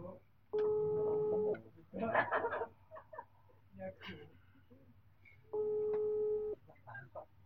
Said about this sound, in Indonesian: Oh, telepon. Oh, telepon.